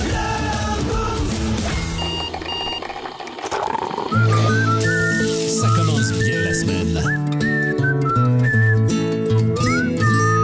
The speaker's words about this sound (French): qui siffle pendant le thème.